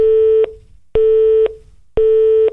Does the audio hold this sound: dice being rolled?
no